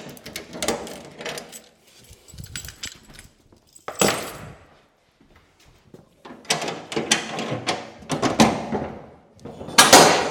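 Metallic clanks and rattling as the locks are worked and the heavy doors of a storage container holding Miep van Riesen's works are scraped open, coming in bursts with short pauses between them and a loud grinding surge at the end.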